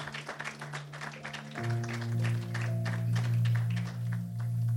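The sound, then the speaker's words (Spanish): An audience at a church service applauds the godparents, a dense crackle of many hands clapping, while a sustained low organ-like chord enters partway through and holds steadily underneath the clapping. “aplausos también para ellos.”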